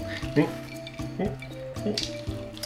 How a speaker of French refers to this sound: il fait extrêmement chaud, et du coup nous, euh, en profitons pour boire une petite boisson glacée, n'est-ce pas Ah oui, allez. Eh. écoute les glaçons, c'est limite de la SMR. Et, écoute les glaçons, voilà, tu sens la fraîcheur.